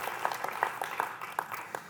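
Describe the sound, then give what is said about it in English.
A church audience applauds as a clap offering to the Lord, a dense, steady patter of many overlapping hand claps with no clear rhythm, fairly soft and continuous throughout, with no voices standing out. “Can we give him a clap offering here?”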